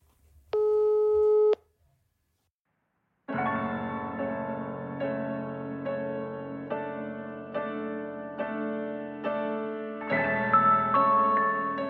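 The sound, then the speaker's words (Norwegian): A single loud telephone busy tone, about a second long, heard when calling Ila prison, sounds alone and cuts off into a brief silence before music starts up and carries on to the end. “Jeg ringer Ila fengsel.”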